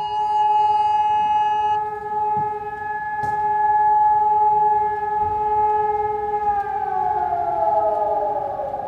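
A civil defense warning siren in Düsseldorf city centre, Germany, sounding at 11 a.m. on the national warning day (Warntag) 2022, holds a loud, steady droning tone rich in overtones, then its pitch begins to slide downward toward the end; no voices are heard.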